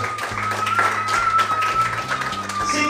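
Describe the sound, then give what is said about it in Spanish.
A church audience claps steadily and densely throughout, applauding God. The applause is fairly loud, with sustained keyboard or organ chords and a thin high tone held underneath. “Dale un aplauso a Dios.”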